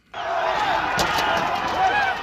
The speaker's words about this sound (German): Ja, Explosionen, Feuer, hunderte Demonstranten, die auch teilweise in wichtige Regierungsgebäude eingedrungen sind. Und eine Polizei, die gewalttätig gegen sie vorgeht und die auch bereits mehrere Menschen getötet haben soll.